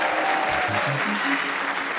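An audience claps steadily and densely for a couple of seconds, applauding a participant, a continuous wash of hand claps at moderate loudness with no voices standing out.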